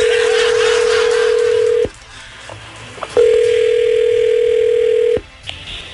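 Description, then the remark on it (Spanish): A steady, low-pitched telephone tone, heard while dialing to place a call, sounds in two long stretches of about two seconds each, separated by a pause holding a few faint clicks, with light background hiss and no talking. “Vamos a marcarle ahorita, no hablen, por favor.”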